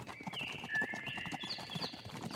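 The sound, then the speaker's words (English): Hooves trot in a quick, steady clip-clop rhythm at moderate volume, with thin whistling, bird-like tones gliding above the beat. “When the bird sees the giraffe trot, he can't help but race after him.”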